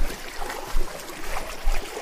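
Steady watery splashing from someone swimming front crawl, with heavier slaps of water about once a second over a continuous churning wash. Nobody speaks.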